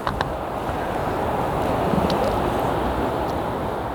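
A steady, broad rush of sea surf heard from in front of a beach just after sunset at dusk, with a low, continuous rumble of road traffic blended underneath and a few faint clicks, no voices.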